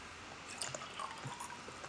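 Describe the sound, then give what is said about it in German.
A quiet sip of water: a few soft wet slurping and swallowing clicks over faint background hiss, with no one talking. “Ich trinke jetzt lieber noch einen Schluck Wasser hinterher.”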